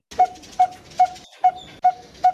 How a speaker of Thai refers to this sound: เสียงตีทองมันจะดังป้งป้งเหมือนเหมือนคนตีเหล็ก